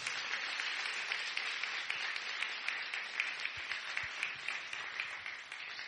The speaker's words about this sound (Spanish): Y si quieres darle un fuerte aplauso al Señor, dáselo bien fuerte.